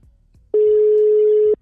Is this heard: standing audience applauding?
no